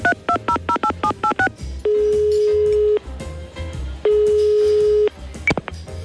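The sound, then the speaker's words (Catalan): A rapid burst of about nine touch-tone dialing beeps as a phone call is placed to a person, followed by two long ringback tones separated by a pause, loud with a faint hum underneath. “Vaig a trucar-lo per telèfon, a veure, a veure si puc parlar amb ell.”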